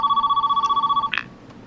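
A telephone rings with a rapid, warbling electronic trill for about a second, then cuts off abruptly with a brief click as an answering machine picks up, leaving near silence.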